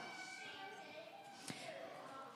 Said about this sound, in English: Hear that? You will have doors closed in your face.